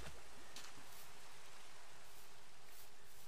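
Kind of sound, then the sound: nature, rain falling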